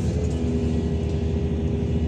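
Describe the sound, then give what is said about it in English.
A heavy dump truck engine rumbles steadily and loudly while being driven, a deep, continuous drone with a constant low hum and no voices over it. “Well, yes and no life, dude. I'm driving a dump truck.”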